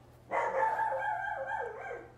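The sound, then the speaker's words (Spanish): A dog named Madagascar lets out one long, drawn-out bark at home that wavers and trails downward, loud, with nobody speaking over it. “el perro perro. Hay que ponerle nombre al perro que se llame Madagascar.”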